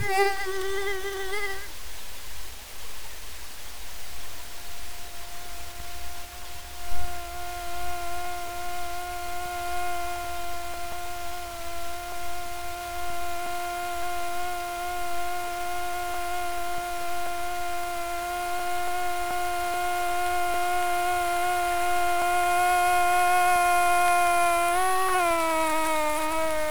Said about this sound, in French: je crois qu'il y a un, bel enregistrement de moustique qui est dans …, ça vaut la peine de l'écouter